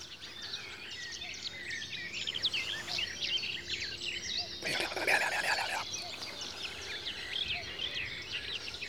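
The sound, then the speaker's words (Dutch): A dense chorus of birds sings at first light, around 3:55 in the morning, many overlapping chirps and trills from several directions, steady throughout, with a brief rushing noise partway through. “Regelmatig staat hij om half vier op om bij het eerste schemerlicht naar vogels te luisteren.”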